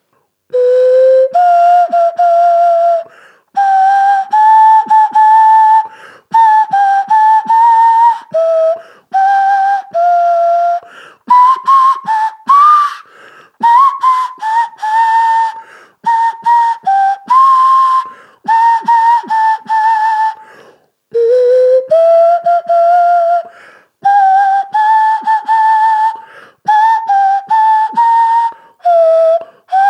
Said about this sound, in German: Kauft euch alle eine Nasenflöte oder wie sie manche auch nennen, Nasenpfeife.